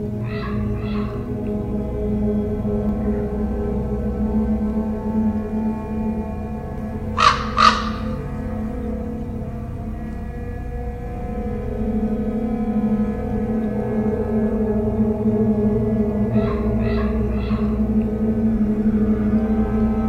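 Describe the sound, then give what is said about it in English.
Harsh, croaking calls from a large corvid ring out in short bursts: a pair near the start, a louder double call midway, and a run of three toward the end, over a steady low outdoor rumble. “It can make as many as 33 different types of sounds, including some calls that can be heard over a mile away.”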